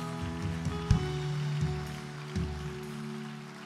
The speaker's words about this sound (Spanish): Bienvenidos al reino de los cielos. Denle un fuerte aplauso a ellos. Denle un fuerte aplauso.